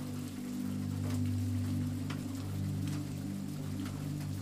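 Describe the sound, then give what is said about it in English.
Steady rain hisses continuously, a constant wash of patter with occasional faint ticks, layered over a low, droning hum that holds throughout. “Crackles and pops of the burning dry logs join the steady sound of rain.”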